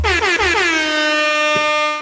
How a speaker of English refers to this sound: I thought I'd throw in the air horn for the start of this one because the air horn gets me hyped up too